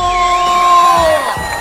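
A loud burst of crowd cheering, with sustained high whoops riding over a noisy wash of clapping, holding steady before easing off slightly near the end.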